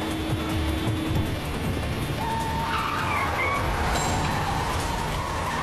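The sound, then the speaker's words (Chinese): A car speeds up to escape pursuers with a constant roaring rush of engine and road noise; its brakes have been tampered with and have failed. Its tires let out high, wavering squeals as it skids out of control. No one speaks. “追击的人就是故意想让他提速，造成车子失控。”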